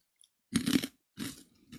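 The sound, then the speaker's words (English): Crunching of someone chewing crisp pea-based, ketchup-flavoured snack chips, two loud bursts of brittle crackling separated by a brief pause, with no talking. “Very crunchy.”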